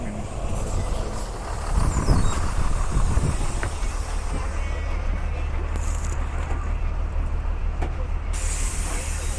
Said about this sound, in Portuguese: Eu vou entrar no ônibus aqui.